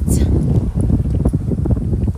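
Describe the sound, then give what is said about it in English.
Steady wind gusts buffet the microphone with a low, continuous rumble, filling the whole moment, with faint rustling and muffled voice-like sounds underneath. “And it's windy, so I'm kind of like trying to keep them down, but.”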